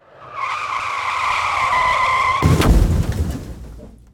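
A loud, high-pitched tire screech holds for about two seconds, then cuts off with a heavy crash and a rumbling, clattering aftermath that fades out. No voices.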